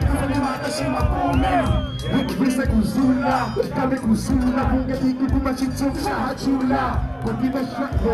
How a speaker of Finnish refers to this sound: Koko yleisö piti etusormea ylhäällä ja räppäsi yhteen ääneen ulkomuistista.